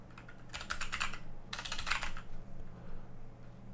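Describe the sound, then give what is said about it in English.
Two quick bursts of computer keyboard typing, crisp clicking keystrokes separated by a brief pause, over a faint steady low hum with no talking. “Actually, let me pull it up real quick. Sorry for the clicking.”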